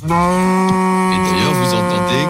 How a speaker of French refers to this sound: C'est une Normande de 5 ans. Bon courage à elle, la pauvre vache. Elle va se faire caresser pendant 10 jours par tous les politiques.